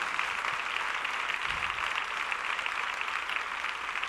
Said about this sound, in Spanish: Y creo que si ni un moderador pide aplausos para un mortal, creo que los aplausos verdaderos nacen del corazón para el que no pasa de moda, que es Dios. Y para él quiero pedirle los mejores aplausos de aquí en adelante que nazcan de usted.